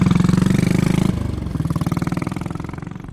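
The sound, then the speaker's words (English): A motorcycle engine rumbles with a steady, pulsing idle, its low throbbing beat dipping slightly midway and then continuing evenly, loud and alone without any voices. “So we jumped on motorcycles.”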